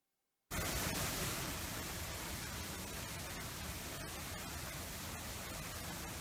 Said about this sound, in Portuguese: Escute que é um som de muitas águas.